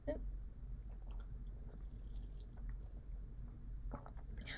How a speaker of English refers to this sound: enjoy my, you know, water drinking sounds, I guess.